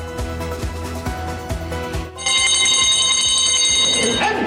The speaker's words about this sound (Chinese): 开拍铃声响起，宫崎县草莓品牌展开今年的首次竞标，一盒草莓大约十二颗